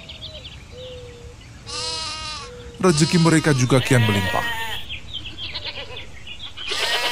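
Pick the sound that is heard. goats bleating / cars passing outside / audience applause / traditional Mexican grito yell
goats bleating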